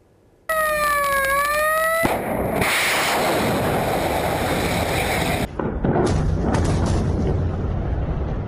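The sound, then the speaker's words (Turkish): A United States warship launching cruise missiles in strikes on Yemen: a brief high whistling tone, then a sudden loud, sustained roaring rush that continues steadily for several seconds, with a short dip before it resumes. “Savaş gemisinden seyir füzeleri ateşlendi.”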